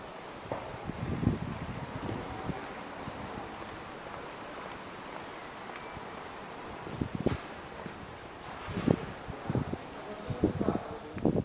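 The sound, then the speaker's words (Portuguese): A hushed outdoor stillness in the emptied city of L'Aquila, Italy, about a month after the 2009 earthquake, with a soft, steady airy background, broken now and then by faint knocks and clatters of construction work for demolitions in the background. “O som do silêncio e lá ao fundo, se calhar, um, um barulho de obra que começa para remover os, para as demolições.”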